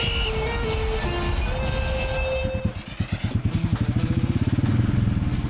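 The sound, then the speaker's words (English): A motorcycle engine revs loudly, its rising whine giving way to a deep, rhythmic lumpy rumble as it throttles and pulses for several seconds. “It's a great time to check out the amazing inventory of new and pre owned motorcycles at the award winning Wisconsin Harley Davidson and Oconomowoc.”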